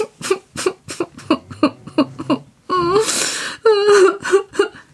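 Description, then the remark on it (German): A girl's voice performs loud sobbing: a quick run of gasping, hiccuping sobs, then drawn-out, quavering wails of weeping, with no words spoken. “Und ihre Angst ward immer größer, dass sie endlich zu weinen anfing.”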